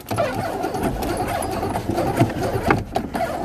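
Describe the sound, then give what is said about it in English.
A car engine turns over and settles into a steady, rumbling mid-pitched drone for a few seconds, with a few brief clicks and rattles near the end and no one talking. “I'm gonna get into my car again because you know, I do this while I walk.”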